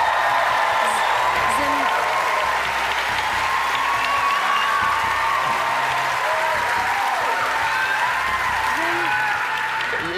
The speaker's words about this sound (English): I hate silence. Can I have some applause